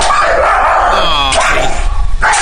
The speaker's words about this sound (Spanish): una muchacha ve que está pegándole a su al perro del señor con un tubo.